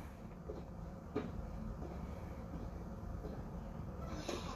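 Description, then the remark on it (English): A door is kicked in with a sharp thud, followed a few seconds later by another clatter as it falls, set against a steady low rumbling background. “just kicked the door. Like, she didn't even open it. She just kicked it and it fell to the ground.”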